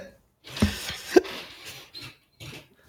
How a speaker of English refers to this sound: someone's up in the room above me and it's cracking a lot. The floor is creaking. Can you hear that pretty loud?